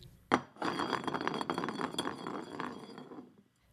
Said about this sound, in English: Let's go ahead and spin that bottle.